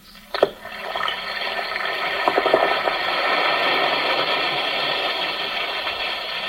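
An Alka-Seltzer tablet drops into water with a sharp plop, then fizzes in a steady, crackling hiss that keeps going, with tiny pops throughout. No one speaks.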